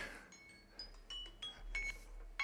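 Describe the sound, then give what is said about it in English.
A timer alert chimes over and over, a string of bright, high, bell-like tones arriving every fraction of a second. It's fairly quiet, with no voices. “I need to find a way to stop this timer. All right, and then I'm gonna I'm gonna bring this to a close. That's my alert.”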